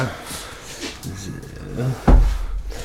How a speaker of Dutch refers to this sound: mijn stoel moet gewisseld worden